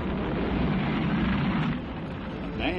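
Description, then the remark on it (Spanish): A deep, continuous roar of rocket engines at liftoff, all engines running after ignition, with about 32 million horsepower of thrust, fills the whole moment, steady and powerful with a rumbling low end, heard without any talking over it. “Todos los motores funcionando.”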